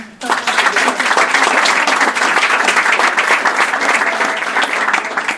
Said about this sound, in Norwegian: Gi en varm applaus til Janne.